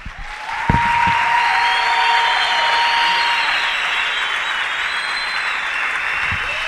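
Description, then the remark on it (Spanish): An audience applauds the Lord steadily for several seconds, a dense, even wash of many hands clapping at once that holds its loudness throughout, with a faint whistle-like tone drifting above it. “Dele otro aplauso, Señor, mientras me quito el saco.”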